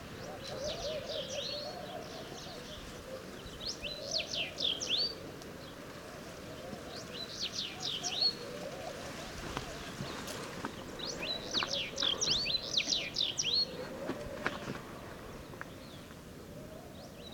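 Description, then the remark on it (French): Laughing doves call softly among repeated bursts of high chirping birdsong, set over a steady rustle of palm fronds in a palm oasis at about 7 a.m., around 16-17 degrees, recorded with a parabolic microphone, with no one speaking. “On entend le bruit dans les feuilles de palmier et les tourterelles maillées.”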